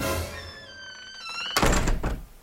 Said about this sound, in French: C'est quoi ce bruit c'est celui d'une balle qui rebondit sur la bedaine d'un bandit.